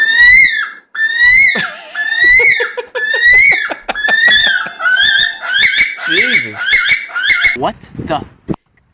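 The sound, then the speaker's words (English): A bird lets out a loud, harsh series of shrill screeches, roughly a dozen calls in a rapid, uneven rhythm that grow more frantic before breaking off. “As soon as you think that, they will let out the most ear-piercing screech.”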